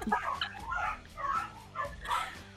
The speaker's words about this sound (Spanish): ya, vinieron, pero me vinieron a ladrar a la ventana.